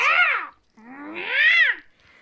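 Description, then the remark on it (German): A person imitates a cat's meow twice, two drawn-out, rising-and-falling mewing calls, separated by a brief pause, with a faint trailing sound at the end. “Oder bist du, bist du jetzt zu einer Katze?”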